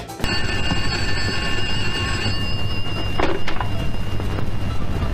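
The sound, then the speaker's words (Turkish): An electronic telephone ring sounds loud, a steady shrill tone for about two seconds, then lingers more faintly over a rumbling background, with no one speaking. “Seçimin ertesi gününde onların telefonları acı acı çalacak.”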